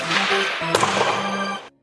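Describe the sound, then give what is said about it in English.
A single sharp crack of a hockey slap shot rings out over a dense, roaring arena-like wash of noise, followed by a brief sustained rumble before the sound cuts off abruptly. “But he has one more question, and this is definitely a slap shot”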